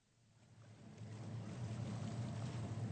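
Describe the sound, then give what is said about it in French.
A boat's engine drones steadily as it moves along the water approaching the famous Lorelei rock, a low hum growing louder over a few seconds with a broad wash of water noise beneath it, and no voices. “Le bateau s'approche du célèbre rocher de la Lorelei.”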